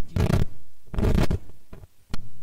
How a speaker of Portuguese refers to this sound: Vou peidar, cara. Ah, pe... ah, puta que merda, cara.